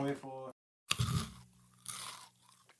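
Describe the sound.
A voice speaks briefly, then after a short silence comes a loud crunch of someone biting into a chocolate-covered biscuit, followed by a few seconds of noisy, crackly chewing.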